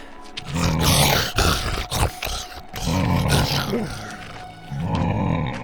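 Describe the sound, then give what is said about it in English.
A baby Tyrannosaurus rex, red and about the size of a small dog, growls and snarls while biting and tearing a projector screen, its rumbling cries broken by sharp crunchy bursts of chewing and tearing, loud and continuous for several seconds with no talking. “It growled and chewed on it like a giant piece of lettuce.”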